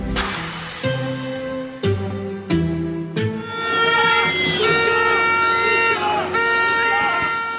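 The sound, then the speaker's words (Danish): A loud street crowd of demonstrators in Israel protesting against Prime Minister Netanyahu, with several long horn blasts in short bursts at first, then sustained whistling and honking over a dense, roaring mass of voices, continuous. “Det her det er lyden af Israel i krise utilfredsheden med premierminister Netanyahu når nemlig lige nu nye højder.”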